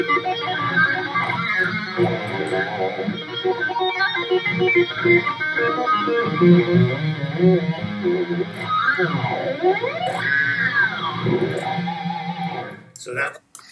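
A loud distorted electric guitar solo with fast runs, swooping pitch bends and sustained bright notes, playing continuously before cutting off abruptly at the end.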